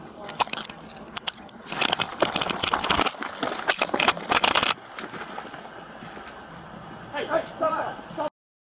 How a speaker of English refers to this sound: So basically, you can hear when the shirt ruffles is when the guy starts freaking out out of nowhere.